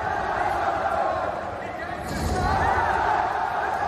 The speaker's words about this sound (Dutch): toch nog maar eens een impressie te geven van hoe hard zo'n event kan leven. Zo klonk het WK in Antwerpen dus. De eerste keer dat een major plaatsvond in België. En een sfeer waar weinig sporten tegenop kunnen.